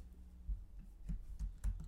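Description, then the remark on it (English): Soft, irregular keystrokes on a computer keyboard as someone types a search for the fastest typing speed in words per minute, a handful of quiet taps spaced unevenly over a low background hum, with no one speaking. “Okay, I'm I'm typing.”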